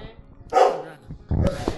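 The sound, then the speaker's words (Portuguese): A dog barks twice, a sharp bark followed after a short pause by a second, louder one, over a faint low background murmur. “Eita, ó, a gente tem um cachorro na, no podcast.”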